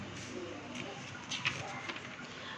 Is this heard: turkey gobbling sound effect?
no